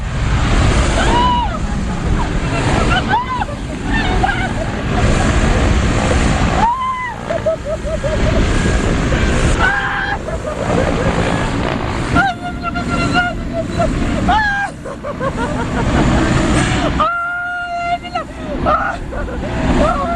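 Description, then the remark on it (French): A loud, steady roar of aircraft engines fills an airport tarmac on a hot morning with other planes about, as an aircraft door opens; people's voices and occasional calls rise faintly over the constant rumble. “La porte vient de s'ouvrir et qu'importe le bruit, la chaleur et les autres avions ce matin.”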